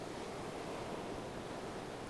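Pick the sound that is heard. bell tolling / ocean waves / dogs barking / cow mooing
ocean waves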